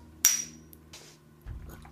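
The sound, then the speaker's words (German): A single sharp clink of glasses knocking together in a toast, with a bright, high ringing tone that fades quickly, followed by soft handling noise and a low thump. “Stoße ich jetzt alleine an?”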